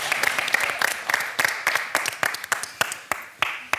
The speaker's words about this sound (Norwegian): Da må vi klappe for dem, for det var, bra.